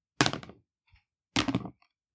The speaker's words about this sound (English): Let's roll the dice and see who descends and ascends first.